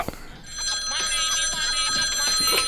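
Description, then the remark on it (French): A short radio jingle built around a ringing telephone: bright, sustained bell tones trill continuously over a steady rhythmic backing, loud and upfront for about two and a half seconds. “Attention Kevin, jingle.”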